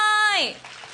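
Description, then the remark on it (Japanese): A voice speaking with a drawn-out falling tone fades out as an audience at a public recording of the radio show Japan Move Up starts clapping to welcome Deputy Chief Cabinet Secretary Katsunobu Kato, a dense, steady patter of applause filling the second half at moderate loudness. “どうぞ大きな拍手でお迎えくださ”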